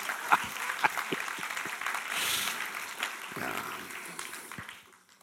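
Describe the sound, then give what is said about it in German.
A crowd at a Pentecost celebration applauds the people who made the cake, with dense, steady clapping that holds for about five seconds before quickly tapering off at the end. “Einfach äh, einen herzlichen Applaus, sie haben es übrigens gemacht, he?”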